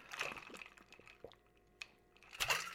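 Quiet sipping of water: a soft slurp at the start, a few small wet clicks and swallows, then another brief slurping sip near the end, with no talking.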